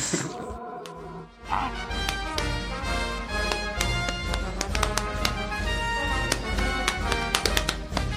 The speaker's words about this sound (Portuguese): Pô, cara, mas o que eu acho legal dessa, dessa música aí é eles batendo palmas, sabe? É, eles ficam se batendo lá.